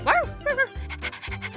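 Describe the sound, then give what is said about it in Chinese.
Duoduo, a small yellow dog, gives two short, high yappy barks, then breaks into quick, rhythmic panting, a steady string of huffing breaths at moderate loudness. “多多，你不可以叫啦，这样我就会发现你。”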